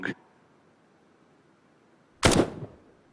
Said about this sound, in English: Take, for example, the sound of a gunshot, which the original sound is less than half a second long.